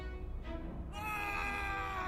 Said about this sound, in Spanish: un grito estremecedor rompe el silencio. Parece provenir de pisos más abajo.